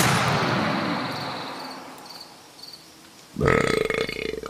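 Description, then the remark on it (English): A loud burp from the creature Sir Mothman, suffering indigestion, rumbles out and slowly fades over a few seconds, followed by a second harsh, throaty belch that bursts in near the end. “oh my, uh, indigestion.”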